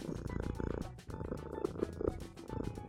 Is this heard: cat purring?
yes